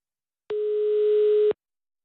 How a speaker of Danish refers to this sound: Ringer stadig. Der er ikke nogen hjemme på Erlinge Apotek. Måske lige til frokost.